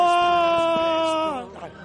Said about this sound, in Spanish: Venga, grita a ver cómo gritas. Hoy que yo grito muy mal. Grito muy mal. Da igual, tú gritas.